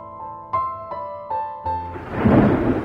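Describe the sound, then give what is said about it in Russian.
A few ringing, bell-like tones strike at a steady pace, then a loud burst of thunder rumbles in and rolls on as a dense, stormy roar with no voices. “Но вскоре картина сменилась грозовыми тучами, и огненная молния рассекла все небо – Штормовые ветры, несущиеся с огромной скоростью, вздымали облака соломенной пыли.”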